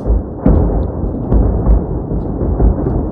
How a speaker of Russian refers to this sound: И выложил видео, на котором слышно, как работает российская артиллерия. Это вселяющий ужас, безостановочный грохот.